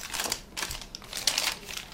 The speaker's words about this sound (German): Die 48-jährige Kavita Sem blättert durch einen Stapel Quittungen, tippt Zahlen in ihren Taschenrechner ein.